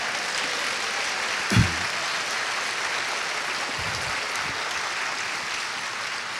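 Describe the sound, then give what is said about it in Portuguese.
A church audience claps steadily for several seconds, a dense, even wash of many hands with no pauses, plus a single dull thump partway through. “Vamos dar um aplauso, mas Vamos lá.”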